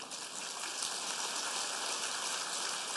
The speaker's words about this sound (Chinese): 让我们以热烈的掌声，感恩卢军红台长为我们带来的精彩开示。